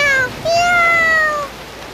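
A cat meows twice, a short high cry followed by a longer, drawn-out meow that rises slightly and then trails downward, over a faint steady hiss.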